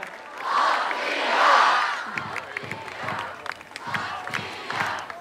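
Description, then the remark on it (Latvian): A large crowd chants "Latvija" loudly in a rhythmic, repeated call, keeping coach Luca Banchi from starting his speech, with cheering voices blending into a roaring swell and sharp accented beats punctuating the chant. “viņš to nevar sākt, jo skatītājs skaļi skandē Latviju”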